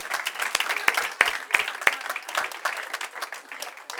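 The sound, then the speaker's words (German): An audience applauds steadily for a few seconds in honor of a mother, a dense patter of many hands clapping, with several sharper individual claps standing out. “Äh, wir haben, geben mir einen Applaus.”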